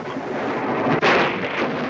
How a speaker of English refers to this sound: This is the whole thunderstorm thing where he's gonna to kiss her, I guess.